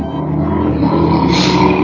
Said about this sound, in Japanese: そうすごいバイクの音。